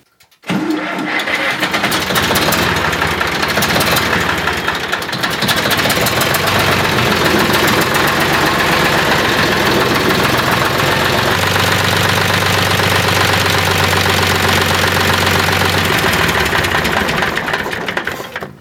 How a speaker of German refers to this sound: Ja, ist ein ehrlicher Traktor, genau. Hm. Gut, würde ich sagen, hören wir uns den Traktor mal an, wie er klingt.